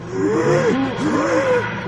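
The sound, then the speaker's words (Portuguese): A voice imitates the wheezing, groaning TARDIS landing sound. Two rising-and-falling pitch sweeps follow each other, fairly loud, with no other talk. “tem um episódio fantástico que ela tá pilotando a tardes, o Matt Smith tá do lado dela, e ela fala assim, pousei. Ele, como assim pousou? E o barulho? O barulho faz.”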